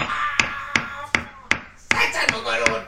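A hammer taps seven times in a steady, even rhythm, each strike sharp with a brief metallic ring, over a faint murmur of background sound.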